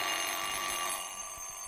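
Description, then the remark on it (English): A wind-up mechanical alarm clock bell rings continuously, a dense, metallic rattling clang that stays loud for the whole moment without pause. “I, I was going to try and wind it up and see if I could set it off, but a lot of other things didn't go right this morning, so I didn't even get time to like play with this clock.”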